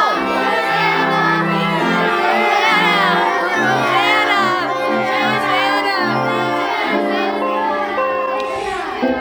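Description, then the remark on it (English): A large group of children in Bible costumes shouts Hosanna together while waving palm leaves as they go down both aisles during a Palm Sunday church service, their overlapping high voices loud, rising and falling in sustained bursts for several seconds without pause. “Start down both aisles now and wave the palm leaves and shout Hosanna like we practiced.”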